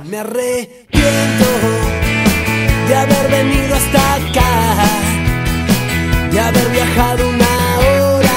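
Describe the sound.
A band plays loud, with driving drums, bass, keyboards, guitars and a sung lead vocal, kicking in after a brief spoken line at the start.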